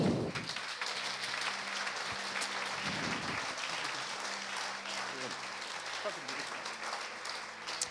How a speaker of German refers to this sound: Großer Applaus.